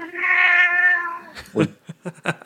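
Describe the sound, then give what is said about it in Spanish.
A single long, loud cat meow right into the microphone as the cat tries to climb onto a person, drawn out for over a second, followed by a few short soft bumps and rustles. “Eh, eh, quiere subirse encima de mí y entonces me he apartado y, y ha maullado directamente en el micrófono.”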